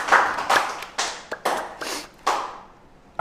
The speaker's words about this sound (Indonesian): Tepuk tangan sekali